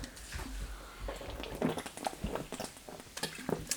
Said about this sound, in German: ASMR be like. Ja, ASMR hm, trinken, wenn ich trinke, musst du die Zuschauer unterhalten.